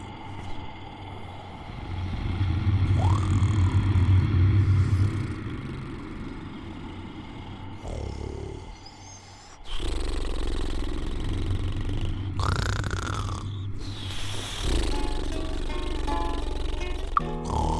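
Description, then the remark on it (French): Loud, rumbling snoring in long, rasping stretches, with a short pause in the middle before it starts again just as heavily. It stands alone, with no talking. “comme Elbissaron n'avait peur de rien ni de personne, il s'endormit très tranquillement et se mit à ronfler à son tour très très fort, plus fort encore que le diable.”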